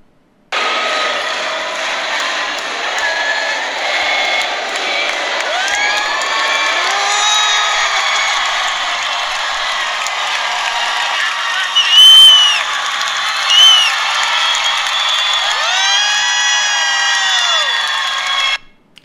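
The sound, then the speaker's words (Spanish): A theater audience gives a sustained ovation lasting several minutes at the end of a performance of Hamilton at the Centro de Bellas Artes, with dense applause and cheering throughout and rising whoops and shouts cutting through the crowd noise. “Una ovación que duró por espacio de varios minutos al, final de la obra.”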